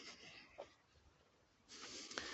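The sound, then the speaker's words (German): Heavy panting with loud breathy exhales from a person climbing up a mountain on foot, a rough burst at the start and a longer, stronger stretch near the end, with no talking. “Ich krauche hier übrigens gerade einen Berg hoch, wie man an meinem Schnaufen wahrscheinlich hört.”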